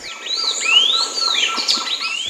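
A sayaca tanager sings a rapid, continuous run of high, thin chirps and slurred whistled notes, sweeping up and down in pitch with no pauses and no talking.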